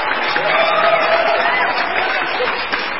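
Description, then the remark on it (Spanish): Steady, dense applause from a crowd fills the whole three seconds at a loud, even level, with a faint cheering voice rising through the clapping. “Aplausos, aplausos, aplausos, aplausos, aplausos.”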